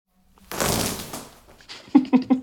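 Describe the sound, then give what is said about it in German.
Gaffer tape rips loudly off the roll in one long, raspy tear, followed by three short, sharp tugs in quick succession, with no voices. “Gafferband. Ja, ja, Gaffer. ja richtig.”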